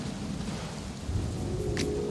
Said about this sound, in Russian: Погодите секунду, сейчас я включу кое-что другое. И это тоже дождь.